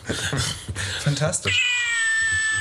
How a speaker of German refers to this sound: Das ist eine Katze in einer kleinen Dose.